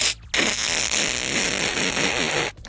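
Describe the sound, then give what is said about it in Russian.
A voice imitates a car engine revving as a car keeps pressing the gas after driving into a fence: one sustained, raspy buzzing rumble lasting about two seconds, loud and steady with slight wavering, cutting off abruptly. No words are spoken. “Мы продолжаем давить на газ так.”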